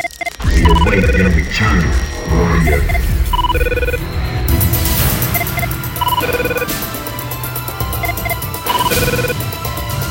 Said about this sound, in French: c'est le thème que j'ai sur mon téléphone, la sonnerie de la CTU de Jack Bauer